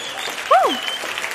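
A short burst of steady, dense applause, with a brief rising-and-falling whistle or whoop cutting through midway.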